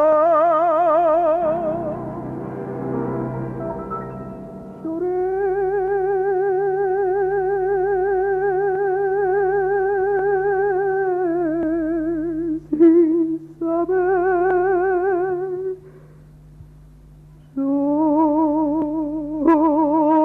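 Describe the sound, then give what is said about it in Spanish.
Instrumental music with long, sustained tones over a steady low drone, treated with an echo effect. It plays at moderate volume with no voices and briefly breaks off twice near the end. “cómo le cambia, cómo le cambia la tónica con esto, esta música de fondo”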